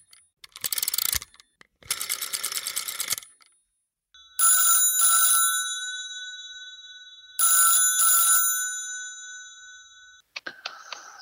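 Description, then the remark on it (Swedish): An outgoing phone call rings out twice, each ring a bright double-pulsed tone with a lingering tail, following a couple of harsh, rustling bursts at the start and a brief sound at the end. “Vi, vi tar och ringer”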